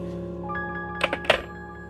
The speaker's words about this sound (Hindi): इतना कहकर लड़की ने फोन पटक के रख दिया